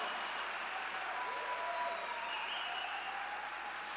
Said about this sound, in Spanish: Amigos que nos miran a través de las redes sociales, esto es Centro de Vida Lomas, aquí en México, una iglesia extraordinaria en donde tú podrías congregarte. Y este aplauso es para ustedes. No me dejen solo.